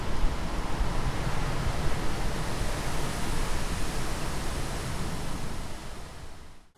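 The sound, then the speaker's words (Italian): A light lake wind blows steadily over flat, dark water at an autumn dawn with mist hanging over it, a soft continuous rushing hiss with a low rumble beneath, holding even throughout before fading away at the very end. No voices. “Un leggero vento di lago mi accarezza.”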